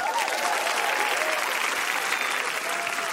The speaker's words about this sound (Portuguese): Oh, Vamos aplaudir a sobrinha neta de Tarsila